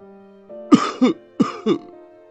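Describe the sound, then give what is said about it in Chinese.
An elderly man's hoarse cough from inside a bathhouse: four rough, throaty bursts in two quick pairs, each with a low voiced rasp, over a faint steady hum and no talking. “而就在我已经穿好第二只鞋，准备起身时，我突然听到澡堂里面传来一声咳嗽声，很清晰，好像是一个老年人的咳嗽声。”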